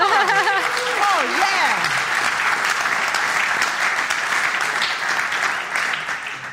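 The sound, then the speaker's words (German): A crowd claps loudly and steadily for several seconds, a dense wash of hand claps, with a brief rising-and-falling voice-like whoop at the very start before the applause takes over. “You guys are, you're loud clappers.”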